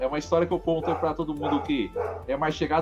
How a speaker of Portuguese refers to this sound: Esse cachorro não é meu, não. Não sei se que tem um cachorro latindo aí, né? Agora parou.